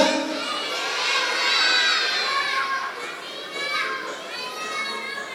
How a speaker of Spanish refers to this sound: Yo no, yo no se me hace que no va a poder encontrar el globo todavía, son muchas voces al mismo tiempo.